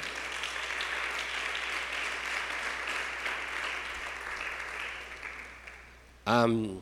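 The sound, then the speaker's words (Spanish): Sustained applause for the Lord from the audience of Iglesia La Hermosa Ministerio Sabenecer, a dense steady patter of many hands clapping for several seconds before a man's voice cuts in loudly at the end. “Da un aplauso al Señor, hermano amado.”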